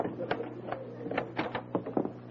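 A front door being opened, heard as a quick series of mechanical clicks and rattles, like a latch and handle being worked, over a low background hum.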